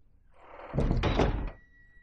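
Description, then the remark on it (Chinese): A heavy iron door of a basement grinds open, a loud low clanking rumble with a scraping metallic rasp lasting under a second, followed by a faint high ring that lingers as it fades. “就在这个时候，他听到了敲门声，随即又听到了沉重的铁门被打开的声音。”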